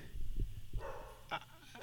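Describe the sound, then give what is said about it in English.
A dog barks a couple of times in short, sharp bursts near the end, over a low rumbling background with a faint murmur of voices. “I'm just going to act like the dog isn't barking.”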